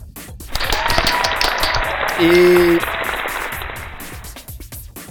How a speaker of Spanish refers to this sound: Para febrero tenemos también la segunda reunión del grupo de usuarios de Linux de Tijuana, del GULTIG. Aplausos también.